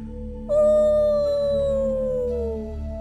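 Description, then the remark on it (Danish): A single loud, eerie howl in a forest rises abruptly and holds for over two seconds, its pitch sliding slowly downward before fading, over a steady low background rumble. “Rod skulle lige til at svare, men blev afbrudt af endnu en høj hylen.”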